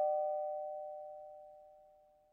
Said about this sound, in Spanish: Y, tras un carraspeo, pulsó el timbre que había junto a la puerta.